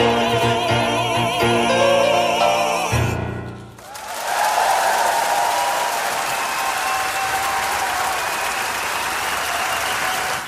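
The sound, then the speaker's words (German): A short burst of music gives way to sustained audience clapping and applause, a dense, steady wash of many hands that continues loudly for several seconds with no talking. “Das Klatschen und der Applaus selbstverständlich auch.”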